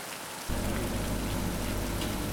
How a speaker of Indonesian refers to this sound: Pernahkah kamu menghitung berapa banyak air hujan yang menetes ke bumi?